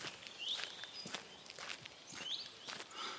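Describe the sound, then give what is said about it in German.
Footsteps crunch along a forest path in an uneven, steady rhythm, fairly quiet, with faint birdsong chirping in the background. “Ich klettere über den Stamm und folge dem Pfad weiter.”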